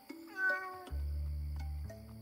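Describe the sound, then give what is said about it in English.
A cat lets out one drawn-out, rising meow, clear, followed by a low steady droning tone that holds to the end with no talking. “You must be the other cat.”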